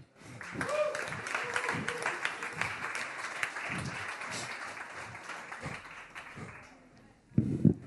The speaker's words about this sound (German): Begrüßt also nun wieder mit einem angemessen vorfreudigen Applaus